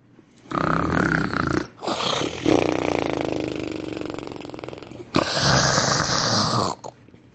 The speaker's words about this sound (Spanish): Los guardias empezaron a roncar muy alto.